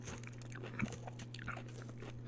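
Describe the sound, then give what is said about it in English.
Crunchy biting and chewing of fresh, crisp food from a local restaurant, with croutons and a creamy ranch dressing, a few sharp crunches scattered over two seconds, with a steady low electrical hum underneath and no talking. “And it's something fresh mm. and crunchy”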